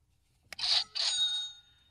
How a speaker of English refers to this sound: And by the way, for those who don't know about the green button, it's green, it's a button, and it sits right here in Vegas, and it makes this sound.